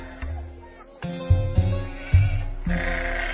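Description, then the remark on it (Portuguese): Sheep and goats bleat in a wavering, overlapping chorus, several calls starting one after another, moderately loud with no talking. “Tinha três mil ovelhas e mil cabras.”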